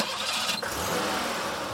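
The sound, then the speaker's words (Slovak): A car engine starts in a parking lot, a short crank catching into a steady, noisy running rumble as the car is driven carefully out, filling the rest of the brief moment. No voices are heard. “Naštartuje auto a opatrne vyjde z parkoviska.”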